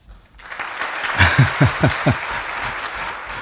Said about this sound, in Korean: 박수 소리예요. 예, 박수 소리입니다.